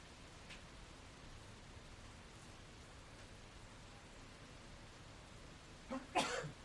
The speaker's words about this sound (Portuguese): pode espirrar em tempo de Covid, mas eu espirro de alergia. E também não tem ninguém aqui. Então acho que não tem problema. E é uma varanda.